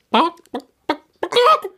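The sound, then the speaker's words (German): A person imitates a clucking chicken with four short, throaty bursts, two quick clucks, a pause, then a longer drawn-out squawk, fairly loud. “Mit blutunterlaufenden Augen und du guckst es an und das guckt dich an und macht so”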